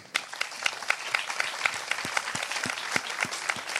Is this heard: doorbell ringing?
no